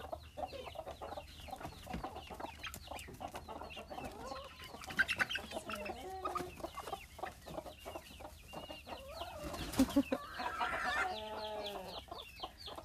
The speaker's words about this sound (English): open the chickens every morning and like the crazy noise they make